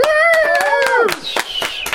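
An audience claps in a quick, uneven patter of sharp hits, while a sustained tonal sound holds steady and then slides downward in pitch over the applause.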